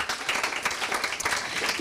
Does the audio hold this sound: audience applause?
yes